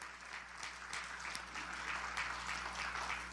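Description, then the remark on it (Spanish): An audience claps steadily for the Lord for several seconds, a dense wash of many hands with no single beat standing out, holding an even level throughout with no voices on top. “¿Por qué no le damos un aplauso fuerte al Señor?”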